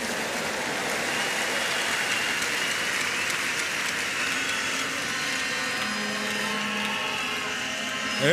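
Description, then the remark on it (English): A church audience applauds as a clap offering to the Lord, a dense, steady roar of clapping that holds evenly for about eight seconds, with a faint sustained low tone surfacing near the end. “Give the Lord one more time a big clap offering.”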